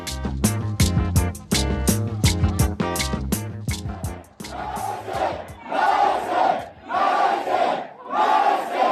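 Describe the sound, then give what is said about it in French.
Several hundred excited fans chant the name of footballer Lionel Messi in loud, rhythmic unison at a luxury hotel in Beijing, China, with sharp repeated syllables giving way to swelling waves of cheering and shouting. “Vous venez d'entendre plusieurs centaines de fans en liesse scander le nom de Lionel Messi dans un hôtel de luxe à Pékin.”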